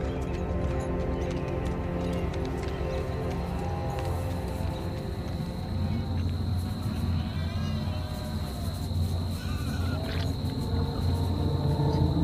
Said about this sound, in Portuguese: Barulhos de poucos animais e de vários insetos você ouve na floresta